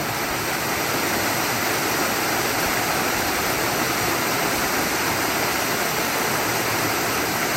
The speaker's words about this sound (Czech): Tak my teď spolu posloucháme šumění řeky a malého vodopádu z nahrávky, kterou jste pořídili v Albánii, už někde v horách.